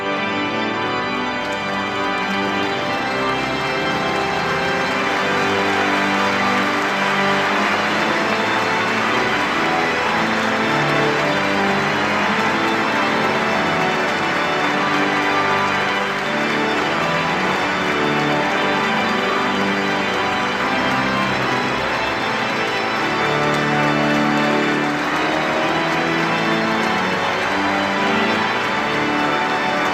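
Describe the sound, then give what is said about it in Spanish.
An audience applauds a new archbishop as he sits on the cathedra at his installation, while an organ plays sustained chords underneath. The clapping is a continuous dense patter that stays loud for the whole stretch, with no one speaking. “las notas del órgano y este aplauso de los presentes, pues han recibido con alegría al nuevo obispo, que ha recibido ese aplauso con una sonrisa, emocionado, sentado en la cátedra,”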